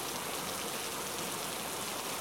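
Steady rain falls continuously, a dense, even hiss of drops with no breaks, moderately loud, and no voices or other sounds.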